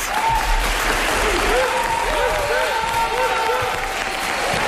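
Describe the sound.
Sustained applause from a theatre audience at the Teatre Municipal de Girona, a dense, steady clatter of many hands clapping at an even loudness for several seconds, with faint cheering and voices mixed into the crowd.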